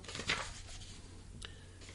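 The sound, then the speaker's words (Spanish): Soft papery rustling as the many pages of a thesis are handled and shuffled, with a brief crisp flick near the start and another about a second later, quiet, no voices. “Ay, son muchas hojas.”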